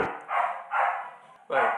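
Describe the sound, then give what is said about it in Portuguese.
A voice imitates a dog barking, producing three loud bark-like yelps in a quick, steady rhythm with short pauses between them. “Imagina no céu, Deus preparando a ceia e o cachorro latindo.”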